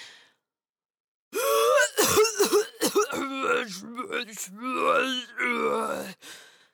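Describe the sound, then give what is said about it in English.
After a short silence, a voice performs a run of rough throat-clearing coughs followed by strained, grumbling groans and mutters, fairly loud, imitating a tiny creature coughing and complaining as it lifts its arm from under a dirty wrapper in a pile of rubbish. “He was coughing and grumbling as he lifted his arm from under a dirty wrapper.”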